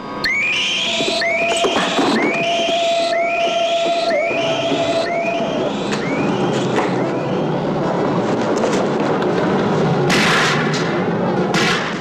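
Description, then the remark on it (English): Gunshots, four bullets fired into a creature, burst through a loud, chaotic din, with a repeating series of sweeping whistle-like tones and a steady hum early on, then heavier noisy blasts near the end. No one speaks. “I put four bullets into him.”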